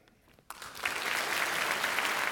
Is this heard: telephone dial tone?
no